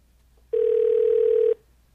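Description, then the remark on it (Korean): A single steady telephone ringback tone of an unanswered call sounds for about one second, clear and fairly loud, then stops before the call goes to voicemail, leaving near silence with no voices. “연결이 되지 않아 음성 사서함으로 연결되며 B 소리 후 통화료가 부과됩니다.”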